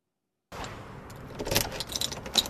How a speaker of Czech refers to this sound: Dveře obchodu v Kejžlici u Humpolce otevírá